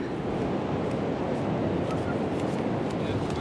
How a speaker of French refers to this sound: Alors ce qu'on entend là, c'est le bruit de la mer.